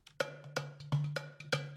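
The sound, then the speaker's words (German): Tabla drum strokes in the action sequence of a film scene's soundtrack, in a quick, steady rhythm, five sharp ringing hits with a sustained low pitched bass tone underneath, played alone with no voices. “Und wenn ich jetzt in die Action-Sequenz gehe, dann haben wir zum Beispiel mal die Tabla.”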